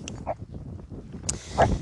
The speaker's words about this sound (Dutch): Oh, de hond.